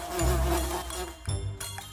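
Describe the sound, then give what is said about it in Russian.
A dense, droning buzz of flies swarming everywhere in a room fills the space, steady, with a brief shift in pitch midway as the swarm hums on without pause. No voices are present. “Да, все вокруг кишит мухами”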